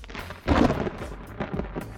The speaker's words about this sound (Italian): Ragazzi, da me piove. Anche questa mattina Roma è avvolta da nuvoloni scuri che non promettono niente di buono.